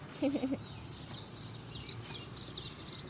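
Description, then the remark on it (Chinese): Many birds chirp and tweet in quick, high-pitched bursts that overlap continuously, with a few lower calls at the start, over a steady outdoor background hiss, under a very large, leafy tree. “哇，这棵树真的好大、好美哦，很茂密耶，有很多鸟叫声，你有没有听到？”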